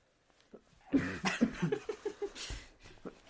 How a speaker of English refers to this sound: I can hear your cough over there. I'm still dying. I'm still sick, y'all. I've been, I have a cough that said it's gonna linger for a while.